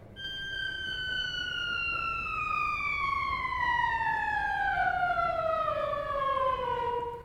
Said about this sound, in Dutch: En Het klinkt ook op een bepaalde manier natuurlijk vals. Maar je kunt bijvoorbeeld ook een soort glissando spelen, wat je ook op geen ander orgel kan.